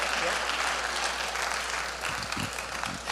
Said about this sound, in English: Let's give these gentlemen another good round of applause. Hallelujah. Praise God. Amen.